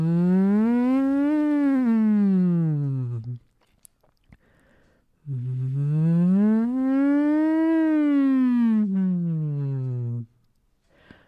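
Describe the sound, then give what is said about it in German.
A voice hums two slow siren-like glissandi through a straw as a vocal exercise, each rising and then falling back down over about three to five seconds, with a short quiet pause between them, steady. “Oder du bleibst bei den Glissandi, sagt man, bei den Sirenen.”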